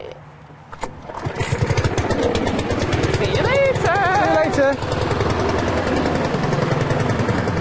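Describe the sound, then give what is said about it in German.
A lawn mower's small petrol engine starts up and runs loudly and steadily with a fast, rattling pulse, while people briefly exchange goodbyes over it. “Okay, there's still some lawn mowing to do.”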